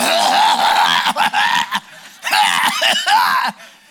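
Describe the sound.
A voice imitates a woman coughing on an airplane before takeoff: several loud, raspy, breathy bursts in quick succession, with short gaps between them, fading at the end.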